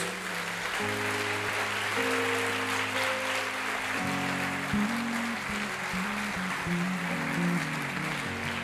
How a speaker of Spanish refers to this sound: Démele fuertes aplausos al Señor por ellos.